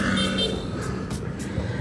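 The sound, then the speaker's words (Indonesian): Steady road traffic with many cars and vehicles on the road: a dense low drone of car engines with brief hissing whooshes as vehicles pass, continuous and fairly loud throughout. “Oke, karena sudah mau deket sama rumah nih, dan juga nih terpaksa nih, gue muter balik nih karena banyak banget nih mobil kendaraan di hari ini.”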